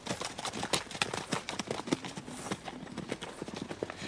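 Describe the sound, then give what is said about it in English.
Horses' hooves clip-clop away in a dense, overlapping rhythm, a steady clatter of many hoofbeats on a hard surface at moderate loudness, with no voices. “Mind your horses, and let's away.”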